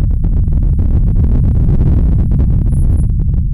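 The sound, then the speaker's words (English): A deep, continuous rumble recorded deep underground rolls on steadily, heavy in the low end like far-off thunder, with a rough grainy texture above it and no voices. “It was amazing, and it sounded like, yeah, like a, almost like a thunder, really far away, something really big and imminent”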